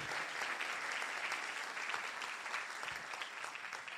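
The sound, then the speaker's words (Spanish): An audience claps loudly and steadily in praise of the Lord, a dense wash of many hands applauding together that holds at an even level throughout, with no voices standing out. “Y le dé un aplauso fuerte al Señor.”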